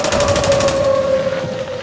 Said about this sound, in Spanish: El dirigente Rosendo García entró al sindicato a tocar la sirena. Los soldados atraparon a Rosendo y ahí mismito lo fusilaron.